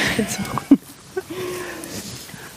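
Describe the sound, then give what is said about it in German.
Crunchy ripping sounds as donkeys tear off mouthfuls of grass while grazing on a green meadow in sunshine, a few sharp tugs scattered over a quiet outdoor background with soft rustling. “Man hört, wie die so das Gras abrupfen.”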